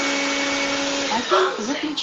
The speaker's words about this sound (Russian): Алиса, выключи пылесос. А, и не хочет выключать. Она меня просто не услышала. Алиса, выключи пылесос.